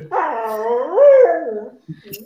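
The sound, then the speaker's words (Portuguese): A dog in a house gives one long, drawn-out whine, fairly loud, its pitch bending upward midway before trailing off, followed by a couple of brief faint sounds. “meu cachorro está tá, tá ameaçando destruir a casa aqui.”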